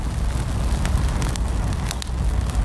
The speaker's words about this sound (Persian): جلوتر به آتیش رسید. گوشه برای خودش میسوخت